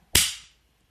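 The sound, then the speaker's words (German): A group claps once in unison on a count of three, a single loud, sharp burst with a bright crack that trails off quickly into silence. Nobody speaks. “So, wir klatschen. Eins, zwei, drei.”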